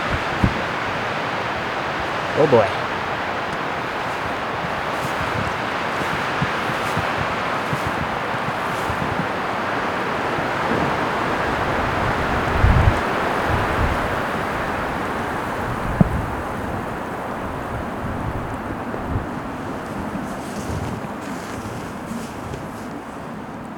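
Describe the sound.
Strong wind roars steadily outdoors on Thursday, March 7, 2019, a loud continuous rushing that buffets the microphone throughout, with a few brief gusty thumps and a short spoken exclamation near the start.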